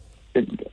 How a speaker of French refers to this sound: Ouais, c'est mon ventre. Mon, ventre t'a dit merci aussi.